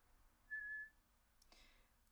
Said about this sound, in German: Entschuldigung, wenn das Pfeifen gerade ein bisschen zu laut war.